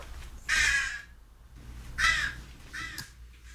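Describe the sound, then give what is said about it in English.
A crow caws three times, each call harsh and raspy, with short pauses between them, the bird standing in a doorway; no one is talking. “It's almost like this Crow knows when I'm doing this podcast and he comes over here and he scratches on this door”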